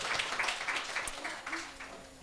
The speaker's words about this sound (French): Mais euh, alors, euh, prends un rétablissement, on peut lui envoyer une bonne main d'applaudissement et envoyer une énergie pour oui, voilà, qui guérisse.